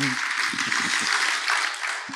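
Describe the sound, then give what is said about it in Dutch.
A crowd applauds steadily, a dense wash of many hands clapping at once that holds at an even, fairly loud level throughout, with faint voices murmuring underneath. “zullen we een heel groot applaus geven.”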